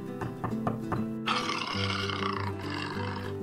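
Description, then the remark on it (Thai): A jaguar snarls in a few quick growling pulses, then lets out a loud, sustained, angry roar that carries on to the end, forceful, with no talking. “เมื่อเสือจากัวเข้ามาในบ้าน เขาเห็นสล็อตกำลังนอนป่วยบนเตียงเขารู้ว่าวันนี้จะไม่ได้อาหารคืนแน่ ๆ เขาจึงคำรามด้วยความโกรธ”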